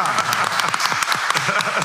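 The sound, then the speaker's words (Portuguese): A small group claps for broadcaster Luiz Roberto, a dense patter of hand claps that runs steady and fairly loud without pause, with a faint murmur of voices mixed underneath. “Sim, palmas pro Luiz Roberto.”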